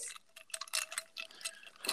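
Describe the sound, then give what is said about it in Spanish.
Ice cubes clinking against a small glass of wine as the glass is swirled, in a quick, irregular series of bright, sharp taps, with a faint ringing tone lingering between the clinks. No one speaks. “mueve, mueve tu copita así, porque se oyeron así los hielitos y se antoja.”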